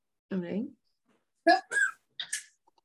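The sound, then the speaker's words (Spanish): A short, voiced sound opens, then after a pause come three quick, sharp sneezes in a row, fairly loud, each a brief explosive burst with a hissy edge. “Salud.”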